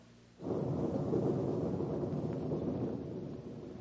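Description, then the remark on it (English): A deep, heavy roll of thunder as a storm approaches erupts suddenly and rumbles steadily for several seconds, broad and booming, slowly easing off toward the end with no voices over it. “Oh, dear, we're going to have a storm.”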